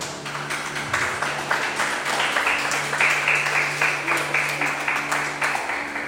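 An audience breaks into steady applause for God, many hands clapping in a dense, continuous patter that holds at an even level for several seconds, with a low hum sustained underneath.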